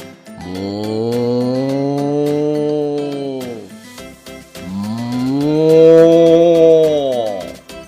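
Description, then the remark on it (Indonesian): Two long, loud moos from a cow, each a drawn-out harmonic bellow lasting about three seconds, with a short pause between them and faint background noise. “Kalau angsa atau bebek, quack, quack, quack, kalau sapi,”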